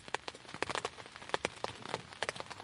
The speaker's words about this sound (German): Regen prasselt am Morgen gegen das Zelt. Zum Glück verzieht er sich bald und für den Rest des Tages strahlt die Sonne vom wolkenlosen Himmel.